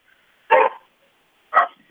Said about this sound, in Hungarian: Ugye nem önt kergeti a kutya? Mert egy kutyaugatást nem, hallottam. Nem, nem, nem, itt csak ezek a kutyák éppen jó reggelt kívánnak.